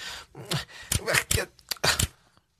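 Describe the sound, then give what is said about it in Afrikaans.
A quick flurry of sharp tap dance steps on a hard floor, several clicks and scuffs in an uneven, hurried rhythm, fairly loud, as someone practises a tap dance for a concert. “Ek wil nie die mense by die konserte leerstel as ek nie weet hoe om my klop dans te doen nie.”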